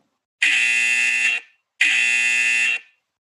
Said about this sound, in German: Habt ihr es gehört? Wir haben es gehört. Wenn das kommt, wenn das kommt, liebe Leute, dann sind die zwei Minuten vorbei. Ihr werdet rausgebuzzert